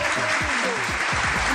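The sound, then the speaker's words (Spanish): An audience applauds steadily, welcoming a guest on a program, a dense, loud wash of many hands clapping at once, with some voices calling out underneath the clapping. “El aplauso para ella.”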